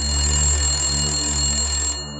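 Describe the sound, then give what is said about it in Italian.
A telephone rings at the Orlandi family home at 6 in the evening on 25 June, steadily with a bright, sustained electronic tone over a low hum, continuing for about two seconds before cutting off abruptly. No voices are heard. “A rispondere al telefono è Mario Menegozzi”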